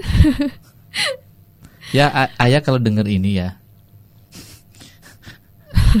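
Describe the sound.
Someone talks while crying, their voice wavering and strained, broken by sharp gasping breaths and short sobs, fairly loud with pauses between bursts.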